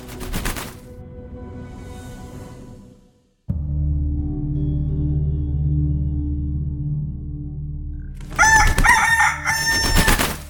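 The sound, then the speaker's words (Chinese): A rooster crows loudly near the end, a strained, harmonic cock-a-doodle-doo in a couple of bursts, following a stretch of steady low droning sound. “恭喜你，头戴红花的大公鸡，你排在十二生肖的第十位。”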